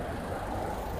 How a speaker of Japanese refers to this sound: あの、音がね、車の音が入ってるかと思いますが、まあ、ご容赦ください。